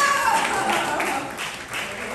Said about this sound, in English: Everybody, if you don't clap, it's a hate crime.